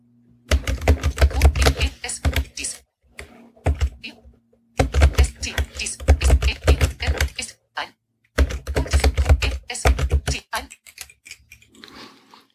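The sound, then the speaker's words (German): Rapid clicking of keys on a braille display keyboard, used to type text on a smartwatch, in three dense bursts, each a couple of seconds long and separated by brief pauses, fairly clear but far away. “Aber ich habe gerade über die Breilzeile auf der Watch 11.32 Uhr Text Sekt Mitteilungen.”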